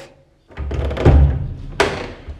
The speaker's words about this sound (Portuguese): com uma porta a fechar, porque dispenso o reverb.